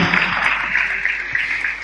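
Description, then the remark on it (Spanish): A church audience applauds first-time visitors together: a steady, dense wash of many hands clapping at an even, fairly loud level throughout, with no individual claps standing out. “Les damos un aplauso muy fuerte a los que nos están visitando por primera vez.”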